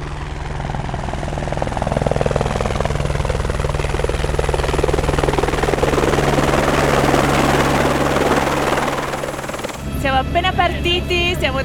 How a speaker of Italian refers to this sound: Il programma di oggi inizia con un tour in elicottero.